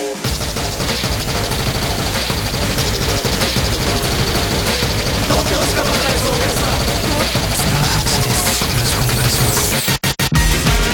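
A ska band song plays loudly and steadily, with busy, driving percussion and a dense full-band sound. Near the end, a couple of quick breaks briefly cut the music.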